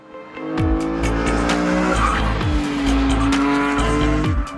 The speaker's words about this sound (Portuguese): A câmera do carro conseguiu gravar tudo o que aconteceu, inclusive estava ligada quando o passageiro roubou o carro e saiu numa fuga alucinada.